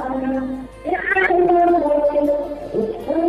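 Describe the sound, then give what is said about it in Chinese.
Loud, muffled din from a KTV karaoke room, where a birthday is being celebrated, heard over a phone line: sustained, wavering sung notes and music blur together in a continuous, distorted wash with no clear words. “哇，背景声音好大，这应该是在 KTV 里面在 happy 的节奏吧？”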